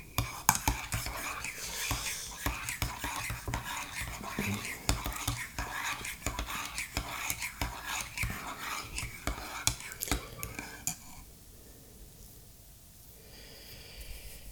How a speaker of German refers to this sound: So, dann wollen wir mal hier den Löffel nehmen und rühren.